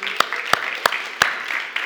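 Four sharp, evenly spaced handclaps ring out over a steady, hissy wash that could be scattered clapping from a group. No one speaks.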